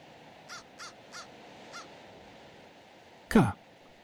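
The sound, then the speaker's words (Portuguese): A crow caws four times in a quick, evenly spaced series, followed by a louder, harsher caw, over a quiet outdoor background. “para o corvo que pousa em seus galhos.”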